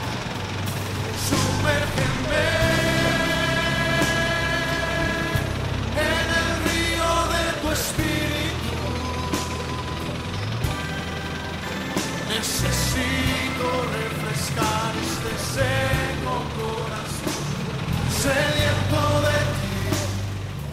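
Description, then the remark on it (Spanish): Loud, dense street din of blaring car horns, buzzing motorcycle engines and tuk-tuk noise, with mournful wailing of mourners at a funeral mixed in throughout. “cada vez más fuerte y el lamento del duelo se confunde con las bocinas de los carros, el ruido de los tuk-tuk y las motocicletas.”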